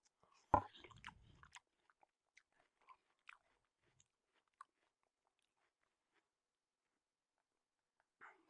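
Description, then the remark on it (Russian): A single juicy crunch of someone biting into watermelon, followed by soft, scattered wet chewing clicks amid otherwise quiet surroundings, with no talking. “Сижу ем арбуз. И говорю в микрофон.”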